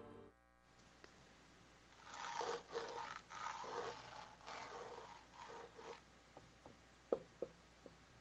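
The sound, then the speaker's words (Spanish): Bursts of raspy scratching against the wall of a neighbouring house where no one lives anymore go on for a few seconds, then stop, followed by three sharp, separate knocks. The sounds are fairly quiet, heard daily, with no voices. “Como, ah, que, tocan, Y que rascan”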